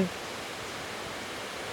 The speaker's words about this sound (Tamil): கேட்குதுன்னு நினைக்கிறேன் உங்களுக்கு கேட்குதா மழை சத்தம் வந்து ரொம்ப அழகாக கேட்குதா